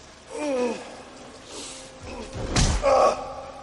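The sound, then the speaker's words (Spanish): A single heavy, dull punch to the stomach lands midway, struck at a man held by two thugs in an abandoned industrial warehouse, followed by a strained, pained grunt; a short breathy vocal gasp comes earlier, and there is no speech. “El argentino le da un puñetazo en el estómago.”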